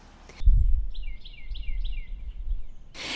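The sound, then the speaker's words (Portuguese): A small robin sings outside a window, a quick series of bright, descending chirps over steady low rumble, the phrases repeating rhythmically, with brief noisy bursts at the start and end. “Na realidade, era apenas um pequeno pintarroxo cantando do lado de fora de sua janela, mas já fazia tanto tempo que ele não ouvia um só passarinho em seu jardim que aquela parecia ser a música mais bonita do mundo.”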